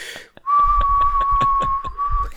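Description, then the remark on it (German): A loud, sustained single-pitch whistle blast held steadily for about two seconds, shrill, like a signal whistle, with low rumbling bumps underneath. “Hast du eine pa Pfeife dabei gehabt? Pfeife? Wie bei Titanic, da also. eine Pfeife.”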